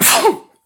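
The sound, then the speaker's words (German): A single sharp sneeze bursts out, a hissy, explosive blast lasting under half a second before it quickly fades into silence. “Ah. Gesundheit.”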